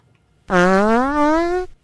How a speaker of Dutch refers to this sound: Een variant van de brutale scheet is de verminderde scheet. Ah. Die heeft dezelfde eigenschappen, maar aangezien zijn harmonie veel beperkter is, lijkt hij meer op een klaroen.